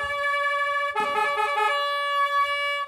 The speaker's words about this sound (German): Am Eingang der Halle trötet ein Edelfan. Tommys Opa ist gekommen, mit seiner Trompete.